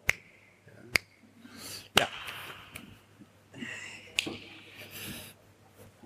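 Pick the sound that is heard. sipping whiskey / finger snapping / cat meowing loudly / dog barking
finger snapping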